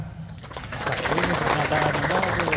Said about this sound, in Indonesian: Ya, jangan-jangan yang tepuk tangan premannya aja.